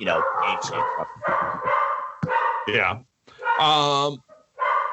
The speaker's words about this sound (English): dog is going crazy